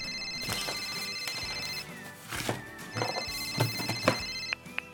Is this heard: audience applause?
no